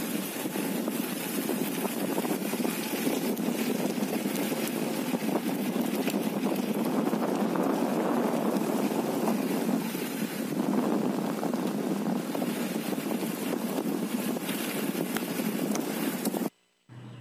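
A dense, steady roar of a locust swarm, a loud continuous whirring hiss filling the air for the whole stretch, with no voices, cutting off abruptly at the end.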